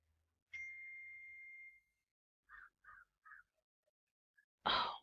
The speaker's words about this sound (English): My phone's going to start going off. but it's okay. I hope it's not irritating you.